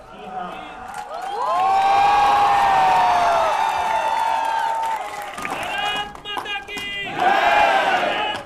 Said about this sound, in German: Spontan stimmt jemand Jubelrufe auf Indien an.